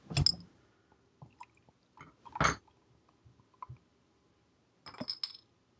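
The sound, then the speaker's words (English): A beer is opened and sipped from a Chimay glass: three sharp bursts with bright glassy ringing, separated by soft clicks and small wet mouth sounds. No one speaks. “Let's crack this baby.”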